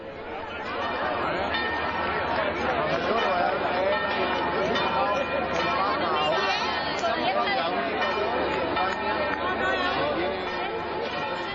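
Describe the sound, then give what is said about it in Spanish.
A large crowd of thousands of devotees at a procession of the Virgin of la Cabeza, patroness of the diocese, in the lands of Jaén, Spain: a dense, steady wash of many overlapping voices and shuffling movement, loud throughout without pause. “que como siempre que ella sale de su santuario, siempre arrastra a miles y miles de devotos, la señora indiscutible de las tierras de Jaén, nuestra patrona de la diócesis, nos dejaba sonidos como los que estamos escuchando de fondo.”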